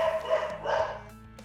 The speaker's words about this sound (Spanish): ¡Cállense, perro!